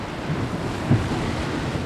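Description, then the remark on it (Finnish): A steady roar of rushing water churns without pause as someone shoots the Harjaskoski rapids in Kuusamo, Finland, with waves splashing and foaming, plus a brief low thump near the middle. No voices are heard. “Terve harjaskoski niskaltasi alas, ryöppyävien aaltojen keskelle ja vaahtoihin”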